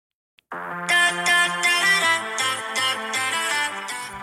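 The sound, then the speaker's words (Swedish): Last year's Finnish song contest winning song plays loudly on its own, an upbeat pop song with bright, rhythmic synth chords pulsing over a steady beat after a brief click at the start. “det här är det finska vinnaren av Melodifestivalen”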